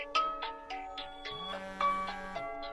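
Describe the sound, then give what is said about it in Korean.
A phone ringtone plays a bright, repeating electronic melody of quick chiming notes at a steady pace, clear, with no one talking over it. “받아봐요. 급한 전화인가 본데.”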